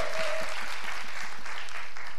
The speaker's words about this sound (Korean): 자 이렇게 해서 저희 또 도와주시는 분들 이분들 대박 나시라고 응원의 박수 감사 박수 부탁드리겠습니다 감사합니다